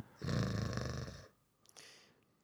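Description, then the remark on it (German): A person imitates a loud, rasping snore, one long rattling inhale followed by a shorter, quieter snort-like breath, with no talking. “Du brauchst das mit diesem Schnarchzeug auch.”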